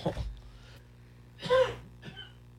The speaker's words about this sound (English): Sorry about that. That cough came out of nowhere.